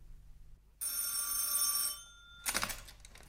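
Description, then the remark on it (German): A telephone bell rings once in a single bright, metallic burst lasting over a second as a long-distance call is placed from a drugstore to Chicago, followed after a brief pause by a short clattering knock, with no voices. “Vor einem Drugstore machte er Halt, um ein Ferngespräch mit Chicago zu führen.”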